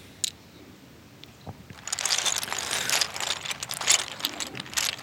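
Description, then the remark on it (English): Close-miked ASMR clicking in rapid, irregular bursts, like a ratchet or small mechanism being worked, beginning sparsely and then turning into a dense, continuous stream of clicks with heavy reverb, panned between left and right. “This one's it all clicks.”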